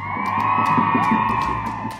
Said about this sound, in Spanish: La mexicana Juliana Bedoya se merece un aplauso